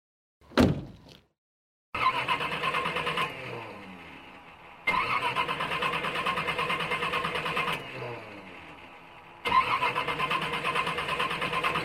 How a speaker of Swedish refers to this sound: Han fick vrida om nyckeln tre gånger innan han lyckades starta bilen. Men när bilen väl startade sladdade han iväg som ett jehu.